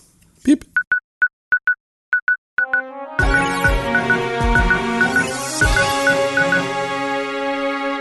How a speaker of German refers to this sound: Das sind die News. Das ist der schönste und beste News-Jingle, den ich je gehört habe.